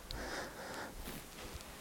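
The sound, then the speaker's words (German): A deep, airy, complete exhale of breath, fairly soft, lasting under a second before tapering into quiet stillness, with no talking. “Atmet vollständig aus.”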